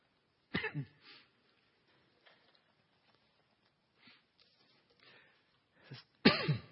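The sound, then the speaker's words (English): A person clears their throat twice, a rough burst near the start and another louder one at the end, with quiet pauses and faint rustling in between. No speech is heard. “Excuse me.”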